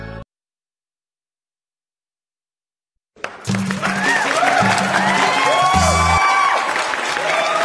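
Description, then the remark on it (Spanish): After a few seconds of silence, loud applause and cheering burst in from a crowd, with whoops and shouts rising above steady clapping that continues to the end. “Aplausos”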